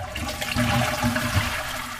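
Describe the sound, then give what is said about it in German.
A toilet flushes with a steady, rushing gush of water that fills the whole two seconds, fairly loud, with gurgling swirls in the low end. “Ich habe heute Morgen geduscht, mir geputzt, bin aufs Klo gegangen”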